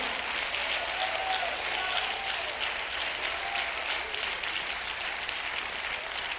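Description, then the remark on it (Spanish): An audience at a Spanish-language church service applauds the Lord steadily, a dense, continuous wash of many hands clapping at an even, sustained loudness for several seconds with no voices standing out. “Oh, dale un fuerte aplauso al Señor.”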